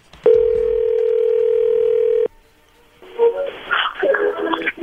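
A loud, steady telephone dial tone hums for about two seconds as a phone call is placed, then cuts off abruptly; after a short pause, a muffled voice and line noise follow.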